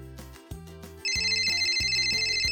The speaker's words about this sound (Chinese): 莱德的手机响了。